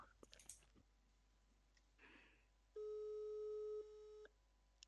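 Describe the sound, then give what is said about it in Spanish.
A steady telephone ringing tone sounds loud for about a second, then drops quieter before cutting off, preceded by a few soft clicks and faint handling noise. “Se oyen los tonos, ¿no?”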